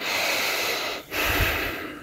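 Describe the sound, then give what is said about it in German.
A deep, full breath drawn in, a long airy inhale, a brief pause, then a slow, steady exhale, with no talking. “Also ich würde einfach, wenn mir danach ist, in der Natur ist mir danach, tief und voll atmen.”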